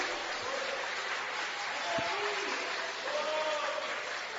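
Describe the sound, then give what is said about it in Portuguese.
A church audience applauds the name of the Lord during a service, in a steady, dense wash of clapping that holds through the whole moment, with a few raised voices calling out over it. “Quem pode aplaudir o nome do Senhor?”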